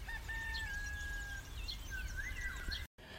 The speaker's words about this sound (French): Bon, c'est pas vrai. Nous sommes le soir et en plus il pleut. Mais je pouvais vraiment pas résister à l'envie de vous faire écouter ces petits oiseaux qui chantonnent.